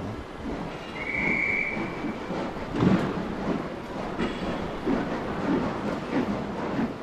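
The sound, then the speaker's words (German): A train rolls into a station right on time with a steady rumble and rhythmic clatter of wheels, a brief high squeal or whistle sounding early on, continuous with no talking. “Aber Chance, die ist zum Beispiel jetzt ganz pünktlich gekommen.”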